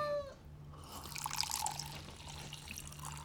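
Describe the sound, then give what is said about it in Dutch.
Vodka is poured into a glass in a short, bubbling trickle with faint splashes, fairly quiet, with no talking. “Ja, kijk eens, jij een schoteltje melk. Ik nog een glaasje vodka.”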